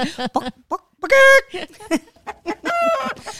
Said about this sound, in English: And funnily enough, if you listen, the Chooks actually do say Bekirk, which is awesome.